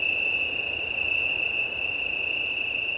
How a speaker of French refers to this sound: Et j'assiste ce soir à un concert, donc à un chorus fabuleux, dont les auteurs sont les grillons italiens, le Cantus Penusens.